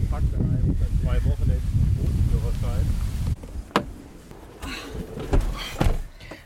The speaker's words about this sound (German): Der Wind nimmt zu. Es wird auch dunkler. Mal sehen, wie lange wir noch trocken bleiben. Uiuiuiui, ui, ui, jetzt wird's windig.